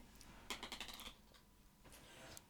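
A quick burst of small hard clicks and rattles of dice being rolled across a surface to pick a winner, followed by a softer second rattle. Fairly quiet, with no talking.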